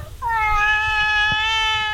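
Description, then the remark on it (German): A male cat lets out one long, drawn-out meow, clear, holding a steady tone for nearly two seconds with no voices present. “Der hat Geschmack, der Kater.”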